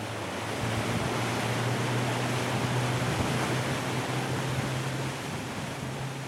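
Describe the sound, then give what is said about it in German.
A motorboat's low, steady engine drone as it speeds up past a green buoy toward the open ocean on a windy day, beneath loud rushing wash of water and wind, a constant roar with no voices. “Die grüne Boje ist erreicht. Ab hier liegen keine Hausboote mehr vor Anker. Mark gibt Gas.”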